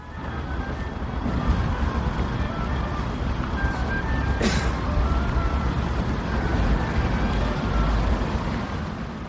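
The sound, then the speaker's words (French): Steady rumble of city traffic and engines fills a street, while a thin transverse flute melody drifts above it in short, scattered notes, partly buried by the noise. “alors j'ai continué à marcher, à me perdre au détour d'une rue, filant entre le boucan des moteurs et du bruit de la ville, et là j'ai entendu une flûte traversière s'élever dans les airs.”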